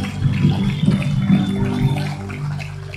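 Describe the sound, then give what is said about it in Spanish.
A crowd gives a loud round of applause for their spiritual parents, the pastors, clapping steadily for a few seconds in a dense wash, easing off slightly toward the end with no voices over it. “Quiero que le un fuerte aplauso a sus padres espirituales.”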